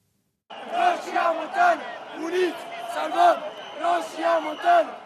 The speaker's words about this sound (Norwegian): Vi står sammen for å redde Rosja Montana, roper folkemengda.